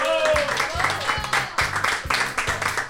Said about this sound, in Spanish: Un aplausico, venga. Venga.